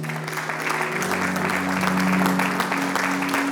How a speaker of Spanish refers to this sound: El aplauso fuerte a Jesucristo.